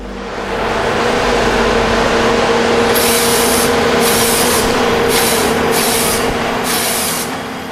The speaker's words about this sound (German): Hydraulische Greifarme klammern sich fest an einen Stamm. Ein schwenkbares Sägeblatt heult auf. Führt wie ein ferngesteuerter Chirurg seine Schnitte aus. Es fällt ein 30 Meter hoher Baum.